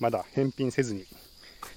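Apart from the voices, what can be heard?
insects chirping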